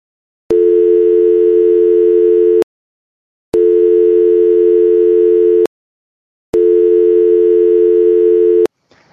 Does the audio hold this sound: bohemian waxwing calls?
no